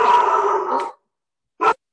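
A female dog barks: a drawn-out, nearly one-second bark, then a brief pause and a single short, sharp bark. No one speaks.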